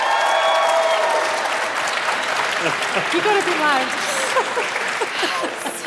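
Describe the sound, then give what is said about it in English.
A crowd claps for team payments in a debate vote, a steady, loud wash of applause that fills the whole stretch, with scattered cheers and voices rising through it and a brief spoken word near the start. “Give them a round of applause if you think they won.”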